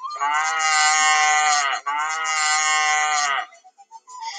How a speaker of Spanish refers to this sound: el torito llegó a la ribera, empezó a mugir poderosamente.